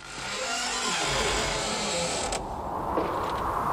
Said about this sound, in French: Alors des petits bruits de porte, des petits hurlements.